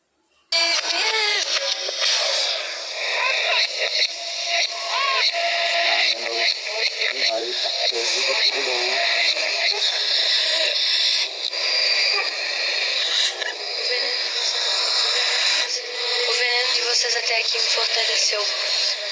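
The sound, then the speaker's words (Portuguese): A pop song played backwards, its reversed vocals and instruments smearing into a warbling, continuous wash with a thin, band-limited, radio-like tone, steady and fairly loud for the whole stretch. “Aí a gente vai mandar ela invertida para ouvir a mensagem subliminar.”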